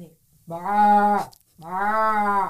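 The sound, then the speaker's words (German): A person imitates a sheep's bleat with two drawn-out, steady vocal calls separated by a short pause, fairly loud. “Ja, und jetzt kommt der Unterschied zum Schaf.”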